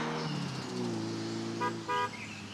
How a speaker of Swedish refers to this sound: Längs en guppig väg kom familjen Stentroll åkandes i sin skruttiga gamla bil.